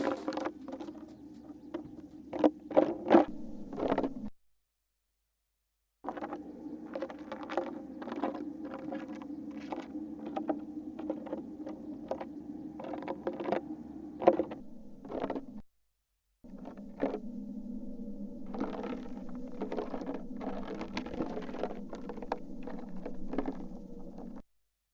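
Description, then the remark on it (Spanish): A wolf spider drumming its tiny legs on the ground, heard as irregular bursts of tiny rapid taps and patters over a steady low hum, broken by two brief silences. “Eso es el ensayo de percusión de una araña lobo, es decir, como suenan los golpes que dan en el suelo sus patas minúsculas.”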